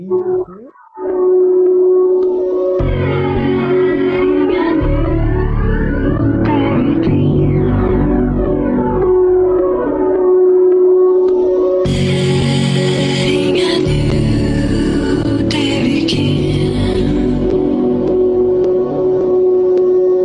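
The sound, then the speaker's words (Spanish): A sample-based hip-hop beat plays on its own without vocals: a loud, bass-heavy loop under a sustained droning tone, with brighter, crisp layers coming in partway through. “No, pero escuchen la base, o sea, ocupa como...”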